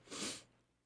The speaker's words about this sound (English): That was like 18 sneezes in a row.